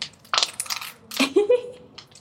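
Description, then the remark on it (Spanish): Mayonnaise squirts from a squeeze bottle: a few hissy, airy sputters, then a short squelchy squeak that rises in pitch before trailing off. No one speaks. “A veces la mayonesa suena feo, suena raro, eh, suena gracioso, pero vamos con eso.”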